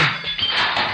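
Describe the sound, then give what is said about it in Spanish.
A harsh, raspy error buzzer blares loudly for about a second, steady and unbroken, with no voices over it. “Esto es el sonido de error.”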